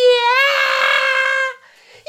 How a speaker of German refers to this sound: Oder, Sag oder doch einfach das, schreit. wo sie, wo sie, wo sie am, am Ding schreien, am Berg.